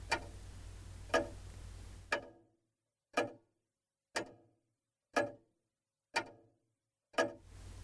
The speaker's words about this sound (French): L'horloge égrenait ses secondes imperturbablement un temps à l'écoulement devenu erratique.